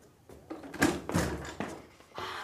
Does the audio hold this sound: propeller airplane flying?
no